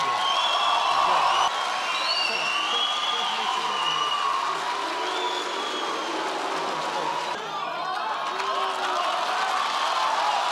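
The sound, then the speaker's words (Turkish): Hundreds of graduates and their families at a university ceremony clap in protest against the dean, sustained clapping and a dense wash of voices, loud and continuous throughout, with occasional shouts rising above the din. “Yüzlerce mezunun ve ailelerinin alkışlı protestos karşısında dekan geri adım attı.”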